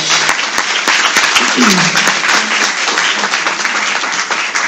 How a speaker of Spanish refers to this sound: ¿Cuántos dicen amén? Denle un aplauso a la palabra de Dios.